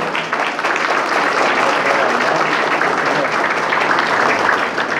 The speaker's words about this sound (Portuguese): Uma salva de palmas à nossa diretoria executiva.